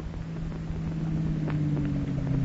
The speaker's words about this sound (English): That's a car entering your driveway, isn't it?